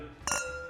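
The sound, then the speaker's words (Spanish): Glasses clink together in a toast, one bright strike whose ringing tone lingers briefly before fading. No one speaks. “ya, mejoramos la cristalería.”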